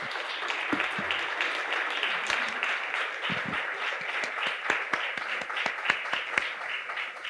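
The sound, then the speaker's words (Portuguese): An audience applauds the politician Ciro Gomes steadily, a dense wash of many hands clapping with sharper individual claps popping out, sustained at an even loudness throughout. “Por isso eu, eu lhes peço mais uma vez uma salva de palmas a esse nosso amigo Ciro Gomes.”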